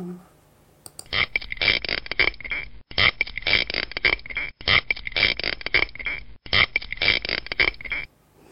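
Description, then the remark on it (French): A spiny lobster stridulates underwater: a loud, rhythmic rasping sound repeats in bursts with short gaps, rapid crackly pulses forming a pattern repeated identically, no speech. “Je réécoute hein, la langouste.”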